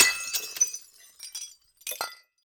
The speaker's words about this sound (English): What a hoot to imagine how they made those great sound effects. A door opening and closing. shoes walking across the floor, glass breaking,